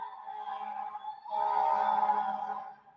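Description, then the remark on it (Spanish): A New York ambulance siren wails in a steady, sustained tone that swells louder through the middle and then fades slightly, with no talking. “Espero hayan disfrutado el sonido de una ambulancia neoyorquina.”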